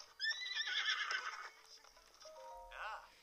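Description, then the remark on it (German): A horse lets out a loud whinny that wavers and trails off, followed by quieter snorting and a few soft hoof clops near the end, as it is ridden at a gallop to a stable by a river. “Wir galoppieren mal hierher.”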